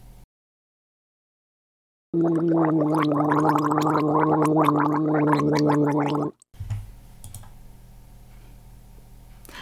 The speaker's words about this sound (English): Mund ausspülen. Rinsing your mouth. Mund ausspülen.